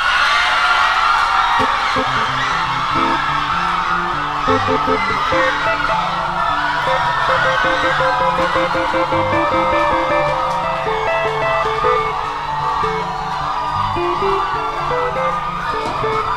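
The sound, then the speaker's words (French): A large crowd at a worship service shouts and cheers continuously, loud and dense throughout, with overlapping yells and whoops forming a steady roar. “Les gens sont en train de crier déjà.”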